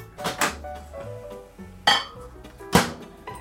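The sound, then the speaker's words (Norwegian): Several sharp clinks and knocks of a cup, half filled, being set down inside a microwave, with a couple of louder bumps spaced out over a few seconds, clear with no talking. “Halv kopp inn i mikroen.”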